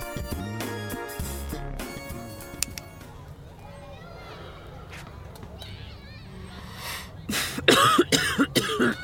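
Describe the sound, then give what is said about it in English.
Near the end, a harsh burst of several rough coughs from someone who has just smoked a cigarette rings out loudly after a stretch of quieter ambient sound with some tonal music-like hum early on. “Shit, sorry. I haven't smoked since I was like 17. I don't even like cigarettes.”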